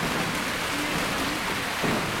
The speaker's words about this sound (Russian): Ну, если бы только крыша не шумела. Ну, да. Я чуть-чуть снял момент, заснял там видео с дождем, может, Коля вставил.